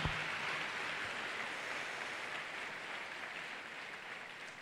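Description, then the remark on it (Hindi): An audience claps loudly and steadily to thank God, many hands blending into a dense, continuous wash of applause that holds for several seconds before easing slightly. “थाली बजा के परमेश्वर के धन्यवाद करें ऊंचे ताली बजा के”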